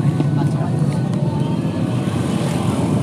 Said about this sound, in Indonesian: setengah jam isinya suara motor enggak ini ada backsoundnya backsound motor